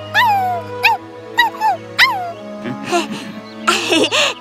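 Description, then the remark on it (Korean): A small pet dog named Yeppi whines in several short, high-pitched whimpers, then lets out a couple of rougher, excited yips, all fairly loud. “아이고, 넌 참 좋은 반려견을 뒀어.”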